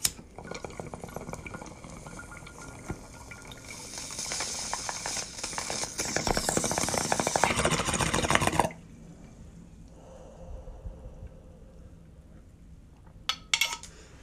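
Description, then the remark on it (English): Steady watery bubbling from a bong being hit in the morning rises and grows louder and more intense for several seconds, then cuts off abruptly, leaving a quiet stretch with a soft breathy hiss and a couple of faint clicks. “Here I go, taking a bong hit this morning.”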